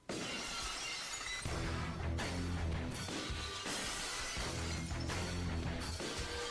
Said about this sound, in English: You finally get the iconic Stone Cold glass break. Of course. So I this is the so after the Pillman has a gun incident, Stone Cold finally gets the the iconic guitar riff glass break. It's like the final piece of Stone Cold.